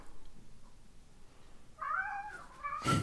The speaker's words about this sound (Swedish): Ni får ursäkta, det är min katt som jagar löv här bakom.